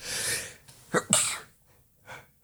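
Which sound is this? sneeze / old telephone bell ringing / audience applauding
sneeze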